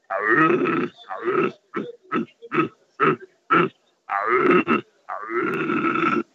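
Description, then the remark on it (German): A person imitates a rutting stag's roar without using a deer call: a long throaty bellow, a quick series of about seven short guttural grunts, then two more drawn-out roars, loud with no other sounds. “ich entscheide mich nochmal für den Hirsch, der gewonnen hat gegen den anderen Hirsch. Können wir den noch einmal hören?”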